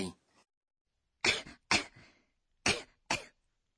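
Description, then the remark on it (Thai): Light, dry coughing: two quick pairs of short coughs with brief pauses between them, preceded by a soft breathy sound, and no talking. “เสียงไอนิดหน่อยคงกงเราพูดว่าคงกง”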